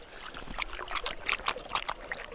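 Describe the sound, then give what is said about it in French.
Nila drinking fresh water, with a quick run of soft, wet lapping splashes repeating irregularly, about four per second, over a faint background of the canal's running water. “ça, c'est Nila qui, qui boit.”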